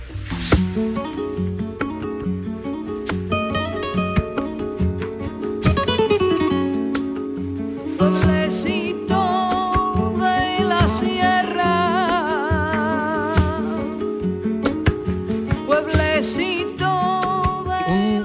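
A flamenco fandango with a woman singing in a wavering, ornamented voice over strummed guitar and sharp rhythmic accents, full and steady throughout.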